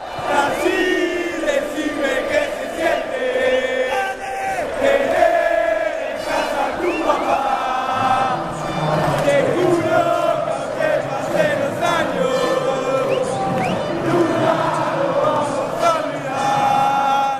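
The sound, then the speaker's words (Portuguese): A large crowd of Argentine football fans sings a rhythmic chant together, loud and steady throughout, with many voices blending into a sustained melodic roar. “E o maior clássico recente da torcida argentina é, com certeza, infelizmente,”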